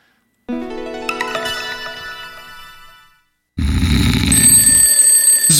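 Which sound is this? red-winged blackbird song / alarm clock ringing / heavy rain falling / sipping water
alarm clock ringing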